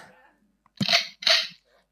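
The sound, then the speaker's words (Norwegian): A voice imitates a shotgun: two quick, breathy blasts with a brief pause between them, and quiet murmuring beforehand. “så skal han vite det når han står utafor døra, og jeg står på innsida, og han hører ja, det skjøt, men det gjør det jo ikke.”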